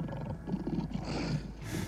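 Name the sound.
lion roaring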